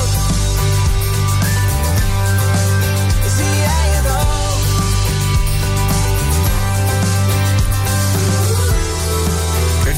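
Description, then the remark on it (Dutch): The chorus of a new Dutch pop single plays loudly and continuously, with a sung vocal melody riding over steady drums, bass and layered instruments. “Ik kan even een klein stukje van het, eh, het refrein eventueel even laten, laten horen.”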